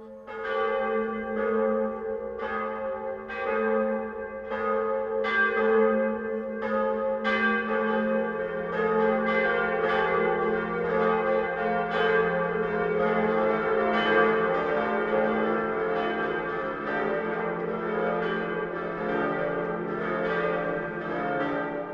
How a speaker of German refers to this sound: Es ist 12 Uhr. Das Mittagsläuten kommt heute von der Kirche, die als erste in der Geschichte Münchens erwähnt ist, von der Pfarrkirche St. Peter.